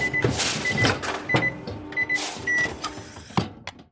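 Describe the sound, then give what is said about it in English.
A busy mechanical transformation effect as a right leg turns into an 850-watt microwave oven with a standard UK 3-pin plug: whirring and clattering bursts broken up by short electronic beeps, like appliance buttons, ending with a couple of sharp clicks. Fairly loud, with no talking. “As you can see, my right leg is now a fully operational 850 watt microwave oven with standard UK 3 pin plug.”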